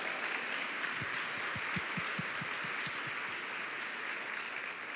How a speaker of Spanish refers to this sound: ¿Cuánto le dan un aplauso al Señor por eso?